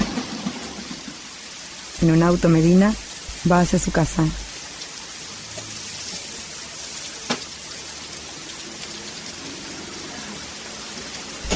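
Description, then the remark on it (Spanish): Steady rain falls throughout with a constant soft hiss, while a man speaks briefly near the start and a single sharp drip or tap stands out later. “Llueve.”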